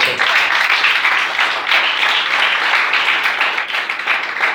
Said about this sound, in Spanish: Denle un aplauso al Señor esta noche.